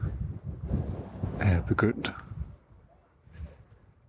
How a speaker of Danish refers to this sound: Hold op, det trækker op her. Der er regndråber i luften. Nej, hvor crazy regn i Karnak-templet. Ja. Ah, vinden tager til.